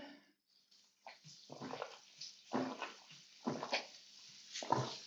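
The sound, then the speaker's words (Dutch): A person takes sips of water, with a series of soft slurping gulps and swallows at a steady, unhurried pace, and no talking. “Wacht, ik neem even een slokje water.”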